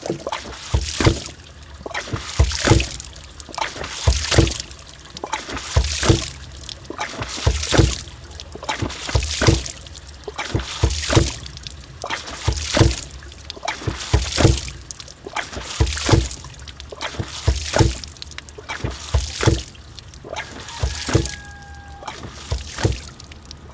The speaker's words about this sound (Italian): davanti al nostro ariete idraulico che è una pompa autonoma di acqua e gli arieti idraulici sono le macchine più semplici per sollevare l'acqua senza usare la corrente oppure anche carburante e servono a portare l'acqua a un livello superiore.